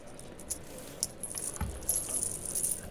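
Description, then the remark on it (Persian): Old coins, including five-rial pieces, spill and jingle in a run of bright metallic clinks and rattles, with a dull thump partway through, with no voices. “وا اینا چیه این گردن بنده رو سکه قدیمی وای نگاه پنجزاری جمع کن آقا جمع کن”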